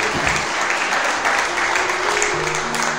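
A church audience claps steadily and loudly in welcome for first-time visitors, dense applause throughout, with faint voices or cheers mixed underneath.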